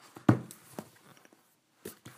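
Sharp plastic clicks from a handheld training clicker of the kind used for clicker training guinea pigs, a loud one followed by a softer one, then a pause and two more quick clicks, with no talking.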